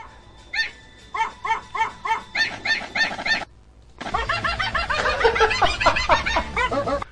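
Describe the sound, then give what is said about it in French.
A small dog in a played video yaps in a quick, steady series of sharp, high-pitched barks, pauses briefly, then resumes with a denser, more frantic burst of barking over a noisier background. “c'est juste un chien qui aboie”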